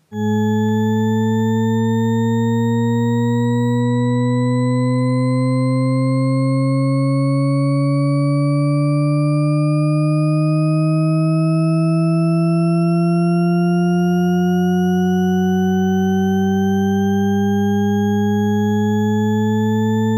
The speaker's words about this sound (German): So, und jetzt hört euch mal diese Tonfolge an.